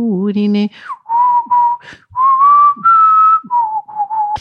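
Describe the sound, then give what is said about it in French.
A person whistles a tune, a series of clear sustained notes with small pitch glides, after a brief opening of a deeper hummed or voiced tone. No one talks. “C'est assez la solitude également hein, de siffler.”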